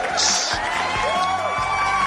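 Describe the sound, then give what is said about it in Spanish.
A crowd cheers and applauds in a steady, loud wash of noise for about two seconds, with high whistles and whoops rising above the clapping. “¡Aplausos!”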